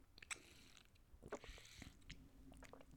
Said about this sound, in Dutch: Ik nam even een slokje drinken.